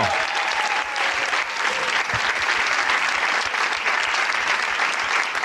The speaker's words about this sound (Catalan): si us plau, rebem un fort aplaudiment a la Marta Bosch, col·laboradora del Matina Codina, per favor, fortíssim aplaudiment, Marta Bosch! Bravo!